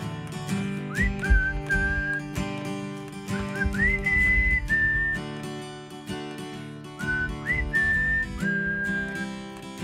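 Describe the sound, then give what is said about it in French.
A clear, bright whistled melody rises and slides through short repeated phrases, carried over a steady backing of instrumental music with a low, full accompaniment. “c'est un vrai siffleux.”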